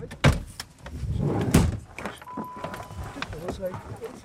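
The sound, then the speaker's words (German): Seniors climbing into their cars outdoors to drive to a mountain a few kilometres away: a couple of solid door thumps, with rustling, a jingle of keys and murmured voices in the background. “Die Senioren steigen jetzt in ihre Autos, um zu einem ein paar Kilometer weiter gelegenen Berg zu fahren, den sie auch betreuen.”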